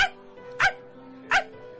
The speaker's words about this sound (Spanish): Entonces Toto empezó a ladrar cada vez más fuerte.